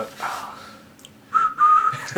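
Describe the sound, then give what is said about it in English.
A person whistles in imitation of a steam whistle while opening a Steam Whistle beer: a faint opening note, then two loud, steady blasts held at the same high pitch with a brief break between them. “It'd be great if like you know steam whistles when you open”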